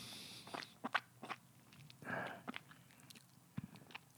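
A quiet slurp of someone sipping a drink poured from a bottle after a toast, surrounded by small wet mouth clicks and smacks, with no talking.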